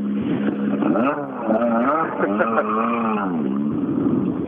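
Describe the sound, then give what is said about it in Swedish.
A car engine runs steadily and loudly throughout, its low droning hum rising and falling slightly in pitch as the revs waver, without a break. “Jag eh, måste stänga av motorn.”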